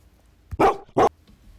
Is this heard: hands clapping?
no